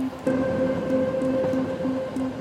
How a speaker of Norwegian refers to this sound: Og idet toget kjører vekk fra 13 stasjon, så legger han merke til at toget kjører på rødt lys.